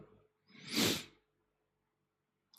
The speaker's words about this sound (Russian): Будь здоров.